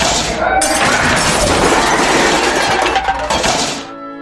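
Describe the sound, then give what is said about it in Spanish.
Plates and glasses smash and shatter in a loud, dense burst of crashing crockery, with tinkling fragments and clinks continuing for several seconds before the noise fades out. “la mujer responde con dos piedras en la mano, terminan en una batalla de platos y vasos rotos, etc.”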